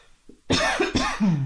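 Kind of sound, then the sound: human body sound, cough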